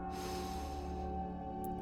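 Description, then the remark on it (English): A long, steady, soft inhale through the nose during a guided breathing session, lasting nearly two seconds over a faint, sustained low hum in the background. “Now, moving into the next part of our guided breathing session, this time inviting you to go ahead and inhale through your nose”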